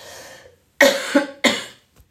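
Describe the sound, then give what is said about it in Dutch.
A dry cough from a speaker, repeated in two or three sharp bursts and preceded by a brief throat-clearing rasp, with no talking. “Oh, irritant hè, dat ik nu die laatste minuten zo zit te kuchen.”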